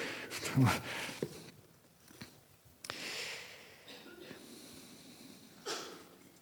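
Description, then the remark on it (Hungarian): A single sharp, explosive sneeze bursts out early, followed by quieter sniffs, breathy noises and a few soft rustles. “egészségedre.”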